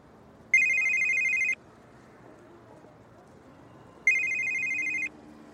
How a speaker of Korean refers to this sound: 때마침 그의 휴대폰이 울렸고.